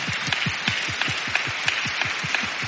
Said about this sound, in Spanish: Levanta la mano derecha. Levanta la mano izquierda. Aplauda. Amén.